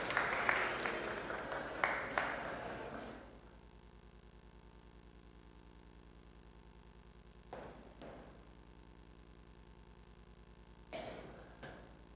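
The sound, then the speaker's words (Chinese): A church audience bursts into applause to welcome first-, second- and third-time visitors to worship, a dense clapping that lasts about three seconds before dying away into near silence, broken later by two brief muffled shuffling noises. “好，我们请第一次、第二次、第三次在我们当敬拜神的，请站起来，我们一起热烈掌声来欢迎他。”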